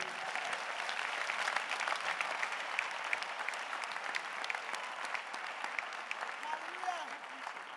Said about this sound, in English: You see, even your clapping shows that you are not grateful.